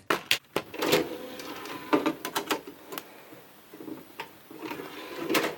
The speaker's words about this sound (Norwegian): Du gjenkjenner det kanskje ikke, men dette er altså lyden av en DVD.